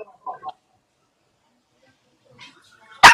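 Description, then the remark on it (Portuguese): A dog gives a pair of quick, close barks, then a quieter yip after a pause, ending with one sudden loud, sharp bark right at the end. “temos um cachorro no lugar do Vilela agora”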